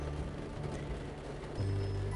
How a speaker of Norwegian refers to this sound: Nå sitter jeg inne i bilen, og regnet trommer på på vinduene. Det er helt gråvær ute. Og jeg syns det er så koselig. Så koselig at jeg faktisk velger å bli sittende her eh, i bilen en liten stund og bare høre regnet tromle på rutene.